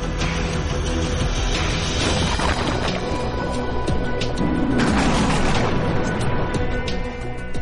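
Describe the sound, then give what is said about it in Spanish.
A loud, crackling electrical discharge like a lightning strike of billions of volts jolting a chemical soup, with several sharp bursts flaring over a dense, continuous roar and hiss that never lets up. “Una descarga sacude la sopa química, en el lugar oportuno y en el momento exacto.”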